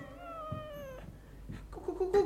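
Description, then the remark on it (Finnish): The morgue cat, old Matias Kolli, lets out a long, drawn-out meow, followed by rougher yowling cries that swell louder toward the end, with no one talking. “Ruumishuoneen kissa siellä naukuelee, vanha Matias Kolli.”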